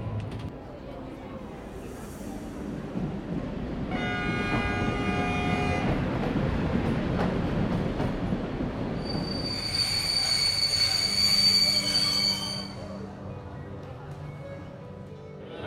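A passenger train rolls steadily into Amritsar, India, minutes from Amritsar railway station, with a low rumble, while high metallic wheel squeals rise in two long bursts, the second louder and shriller, heard from inside or beside the carriage.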